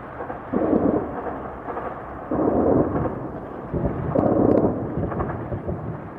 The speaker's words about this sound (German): Explosions breaking the silence after dark in Kiev, and tonight it's believed the Russians are already within city limits.